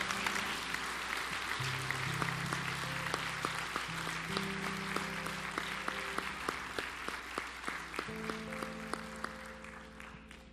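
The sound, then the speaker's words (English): A church audience claps steadily and loudly for about ten seconds in praise of the Lord, a dense continuous patter, while sustained organ or keyboard chords play underneath and shift between notes. “Why don't we, one more time, just give the Lord a hand clap of praise?”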